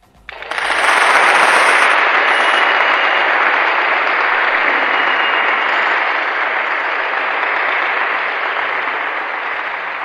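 Sustained audience applause on Bata CM Radio following a poetry recitation, starting abruptly and holding at a steady, loud level for about nine seconds, a dense crackle of many hands clapping with no voices over it.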